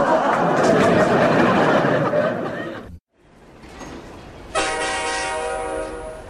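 A train rumbles loudly for about three seconds, breaks off in a brief silence, then a sustained, steady train horn blares over continued rolling noise until the end.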